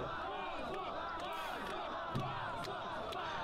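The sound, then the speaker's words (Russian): A large, dense crowd in an enclosed space shouts "shame" at politician Zhirinovsky in a dense, continuous roar of many overlapping voices, loud and sustained for the whole stretch, with a few sharper cries rising above the mass. “Все кричат ему позор.”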